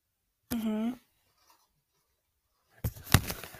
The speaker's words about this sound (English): They're squeezing the Cheetos bags. Why are you squeezing the Cheetos? I don't like it.